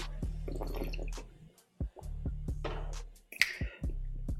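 Someone swigs water, a series of wet gulps and swallowing clicks arriving in uneven bursts with brief pauses, no talking, over a faint steady low hum.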